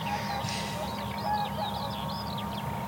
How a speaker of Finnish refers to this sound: Ja kuovi. Kuovi, kuovi kuuluu ja kuovi on kuultu tänä aamuna tosi hienosti kyllä useamman kerran.